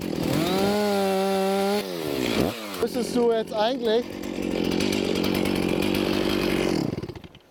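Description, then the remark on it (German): A chainsaw cutting a 5-metre length off a tree revs loudly with a steady harmonic whine, dips and surges through a few throttle blips, then settles into a long continuous cutting drone before cutting off. A voice speaks briefly in German over it. “Aber wir schneiden jetzt hier erstmal ein 5 Meter Stück runter.”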